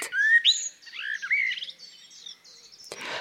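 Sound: common blackbird song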